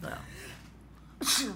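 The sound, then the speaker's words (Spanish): A single sharp, loud sneeze bursts out near the end, after a brief stretch of soft speech and quiet. “Salud.”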